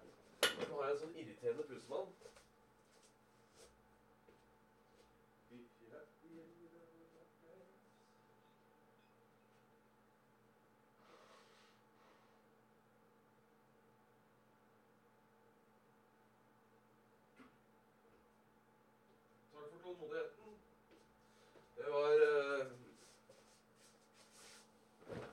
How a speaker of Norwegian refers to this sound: Jeg, jeg, jeg, jeg må bare snyte meg. To sekunder.